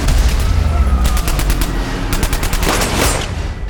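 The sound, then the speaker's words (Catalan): Two rapid volleys of gunshots crack out in quick succession, loud, over a steady low rumbling background with no talking, in a French-language series clip. “Sirenes, parlar atropellat, musique... com la que estem escoltant, eh, i alguns trets.”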